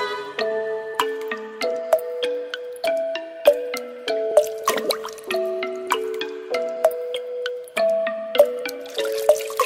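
Pitched water-drop plinks fall one after another in a steady rhythm, each ringing briefly and stepping up and down in pitch like a little melody. No one speaks.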